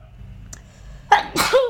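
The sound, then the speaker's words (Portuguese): A single sharp sneeze: a quick inhaled gasp followed by a loud, explosive burst with a short tonal tail, against a quiet background with no talking. “Santinho. Saúde.”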